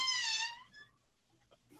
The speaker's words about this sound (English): Nice open. sound effect. I planned that. Um, the door creaks uh, open.